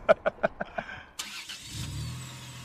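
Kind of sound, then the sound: vehicle, car engine starting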